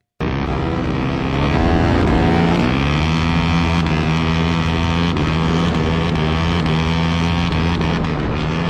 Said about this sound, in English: And it is just what it sounds like here. It, it, it's uh, there's two. It sounds like 450 cc dirt bikes side by side, and obviously they're only in like first gear because yeah. you can hear them banging off the rev limiter there